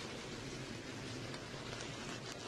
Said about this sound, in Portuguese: Vai vendo que a gente tem a chuva em cima do autódromo, em torno do autódromo aparentemente a gente tem clima um pouco mais limpo. Mas está aí a chuva, né?